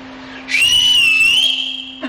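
A woman gives one loud, sustained whistle lasting about a second and a half, holding a steady high pitch with a slight rise and fall, over a faint constant hum. No one speaks.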